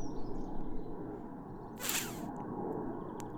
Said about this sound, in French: Voilà, ah, bah désolé, c'est pas un camion, c'est un avion.